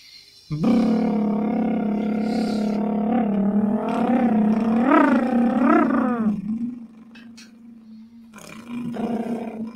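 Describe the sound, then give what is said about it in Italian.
A long, buzzy lip trill vocal exercise held on a low steady pitch, rising into several upward swoops midway before settling back to a steady drone, with a short second trill at the end. “Brrr, vedi che più piccolo tu fai, fai tutto, è come se tu utilizzassi tutta la tua bocca”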